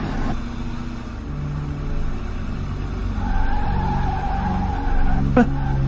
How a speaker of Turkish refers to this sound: İşte bak. İneceği yere geldi. Şimdi minibüs duracak ve içinden inecek.